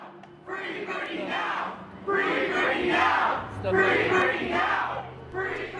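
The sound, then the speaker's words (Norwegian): A crowd of Free Britney protesters chants loudly in rhythmic surges outside a courtroom in Los Angeles, many voices shouting together in repeated bursts with brief dips between each phrase. “Utenfor et rettslokale i Los Angeles venter Free Britney-demonstranter spent.”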